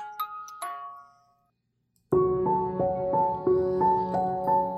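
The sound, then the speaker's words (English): A two-tone doorbell chime rings out clearly, its notes fading. After a short silence, a louder, busier run of bright repeated chiming tones plays in a steady rhythm. “Your doorbell rings while you're out back working on a project that you've been wanting to work on.”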